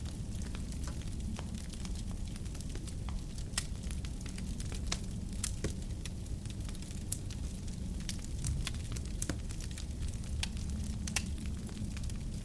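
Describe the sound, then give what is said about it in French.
A large wood fire in an old, open stone fireplace inside a chalet, with snow falling outside, crackles steadily with frequent sharp pops and snaps over a low, warm rumble of flames, continuous, with no voices. “Vous êtes à l'intérieur du chalet, enveloppé de la chaleur douce du feu qui crépite devant vous.”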